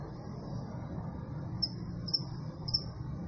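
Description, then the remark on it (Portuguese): A thin, steady high-pitched buzz of a cricket being shocked on an electric fence, broken by three sharp crackling ticks roughly half a second apart over a low rumbling background; no one speaks. “acho que o grilo bateu na cerca elétrica e tá tomando choque. Tá sendo frito agora, coitado do grilo.”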